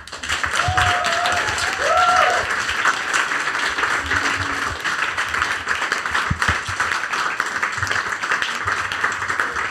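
A crowd applauds steadily for several seconds, a dense wash of many hands clapping with a few whoops and brief cheers rising above it early on.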